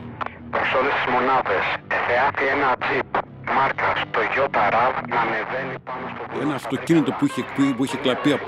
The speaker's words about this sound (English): his partners are driving an unmarked car through the mountains when they hear the dispatch radio crackle.